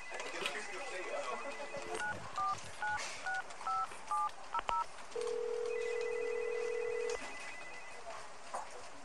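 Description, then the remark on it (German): A quick run of about eight push-button telephone dialing beeps as someone calls a man's mobile phone, followed by a single long, steady ringing tone on the line, clear over faint background noise. “Ich versuche ihn mal anzurufen.”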